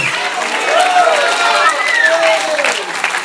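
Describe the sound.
A large audience at a worship service shouts and cheers together, a dense roar of many voices with rising individual yells and scattered clapping, loud and sustained throughout.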